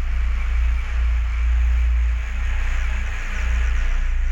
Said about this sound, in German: außerdem hört ihr auch so ein Rauschen im Hintergrund, was immer so wieder unterbrochen ist